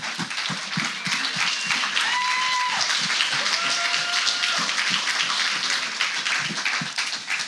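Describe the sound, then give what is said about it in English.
A church audience applauds its lead pastors steadily, dense overlapping claps forming a sustained, fairly loud wash of sound, with a few brief tonal whoops or cheers rising above it midway. “Yeah, let's clap for them.”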